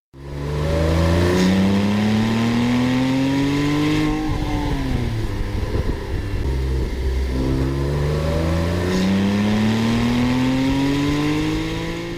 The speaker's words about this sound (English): Just listen. Here's a Porsche 911 without a turbo, what's called naturally aspirated.